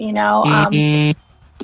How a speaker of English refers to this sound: sorry, that's my phone okay. going off.